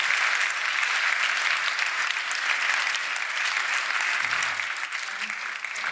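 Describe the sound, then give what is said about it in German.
Sustained applause from a large audience, a dense steady clatter of many hands clapping at a constant loudness throughout, with no voices rising above it. “Sie sehen ja am Applaus, dass ich schon sagen würde, da sind wir uns alle nach wie vor einig.”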